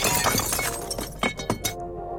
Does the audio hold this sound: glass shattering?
yes